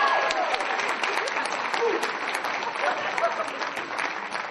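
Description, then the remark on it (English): A crowd claps steadily for the contestants of a competition, a dense, even patter of many hands that stays loud throughout with small swells, and a few faint voices mixed into the applause. “So if we can get a big round of applause one more time.”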